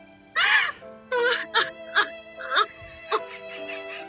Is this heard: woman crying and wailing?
yes